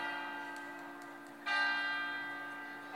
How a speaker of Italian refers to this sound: adesso osserviamo un minuto di silenzio perché parla la campana.